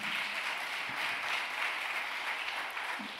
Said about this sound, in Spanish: ¿Cuánto un aplauso fuerte al Señor?